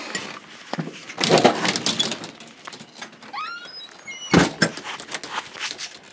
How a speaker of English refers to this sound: Okay, shut off the light. Lock the door.